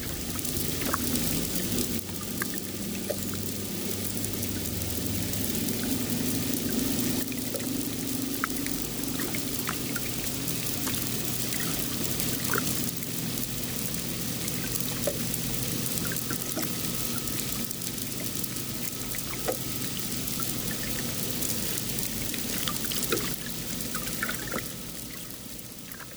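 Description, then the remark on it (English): A continuous low, droning hum of outboard engines kilometres away, picked up underwater by sensitive hydrophones beside a boat: a steady murky rumble with watery hiss and faint clicks layered over it, unchanging throughout with no voices. “But listening below the surface, what we're hearing through our hydrophones, our sensitive hydrophones, are the sounds of outboard engines that are kilometres away.”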